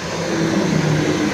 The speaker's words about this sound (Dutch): Sorry voor de trein.